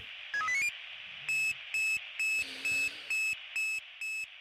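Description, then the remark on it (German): A quick sequence of rising electronic tones, followed by a loud, regular series of about eight identical high-pitched beeps over a steady background hiss: the analog fire brigade alerting tone sequence, now rarely used since alerting went digital. “Ja, die berühmte Tonfolge, die es ja heute auch kaum noch gibt, weil wir ja alles digitalisiert haben.”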